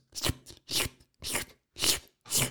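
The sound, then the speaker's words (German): Five wet, smacking licking bursts in a steady rhythm, about two per second, seemingly a person imitating, with mouth noises, one of their dogs licking itself at night; fairly loud and with no talking. “Fängt sich an zu lecken da wache ich aus dem Tiefschlaf aus und kriege sofort einen Puls von 180, warum auch immer.”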